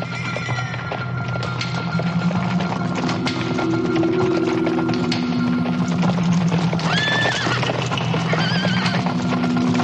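Horses arriving among wood-and-straw cabins whinny with high, wavering neighs over a steady, continuous clatter of hooves clip-clopping throughout, with no speech.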